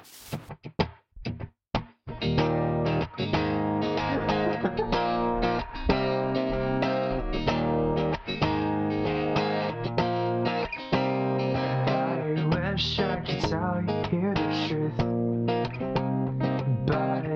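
A recorded song plays: a few sharp drum hits open it, then a loud, dense rock track with distorted guitars and steady drums kicks in and continues without a break.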